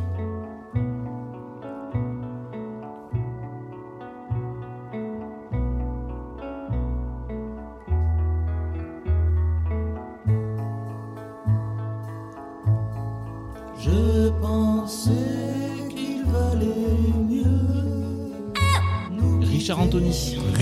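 An old French pop song plays alone, with a steady bouncing rhythm of choppy, staccato notes; about two-thirds through, the arrangement grows fuller and brighter with added sustained layers.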